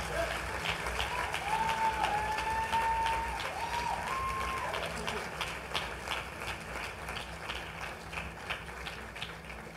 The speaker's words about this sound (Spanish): Eu gostaria que vocês aplaudissem esses corajosos. Me gustaría que le dieran un aplauso a esos valientes.